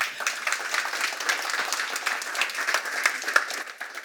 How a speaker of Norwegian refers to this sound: Gi ham en god applaus.